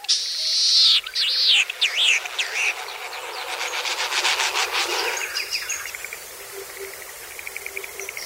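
Latham's snipe display after dark: sweeping, whistling calls give way to a rapid, rising throb of drumming wings, loud, like a small jet plane, then a fainter pulsing buzz trails off over a quiet background.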